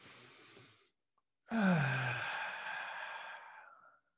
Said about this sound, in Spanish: Toma tres respiraciones profundas, por favor. Una.